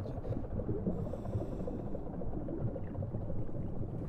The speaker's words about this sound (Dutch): Water versterkt geluid. Dus wat wij horen, dat is eh, scheepvaart.